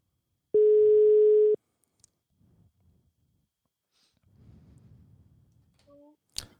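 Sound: telephone dial tone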